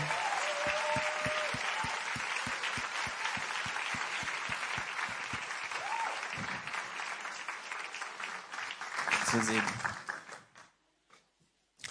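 Sustained audience applause, a dense wash of many hands clapping steadily for about ten seconds, with a few cheers and a rhythmic low thump underneath, before it fades out abruptly.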